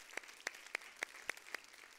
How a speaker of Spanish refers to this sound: Entonces muchas gracias, un aplauso, gracias por ser honorables.